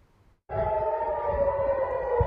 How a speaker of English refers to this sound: Israel's Iron Dome defense system fired interceptor missiles at incoming rockets over the weekend as sirens in Tel Aviv blared, and Israel's defense forces pushed forward with their campaign in the Gaza Strip.